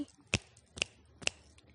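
Three crisp finger snaps in a steady, evenly spaced rhythm, sharp, each one short and bright against a quiet background, done as an action in a children's action song led by a teacher.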